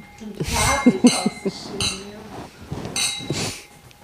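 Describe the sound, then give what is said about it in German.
Glasses clink together several times in a quick toast, bright ringing taps, mixed with overlapping voices and brief laughter. “Und an dieser Stelle Prost. Prost. Cheers. Prost.”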